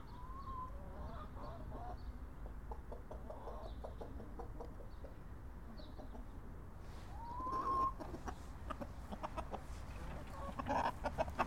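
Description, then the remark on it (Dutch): A large rooster clucks in short, irregular bursts, with a brief rising call partway through, over a steady outdoor background hum; the clucking grows busier and louder toward the end. “De haan komt even polshoog te nemen.”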